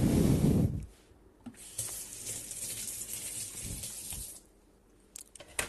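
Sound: tap water running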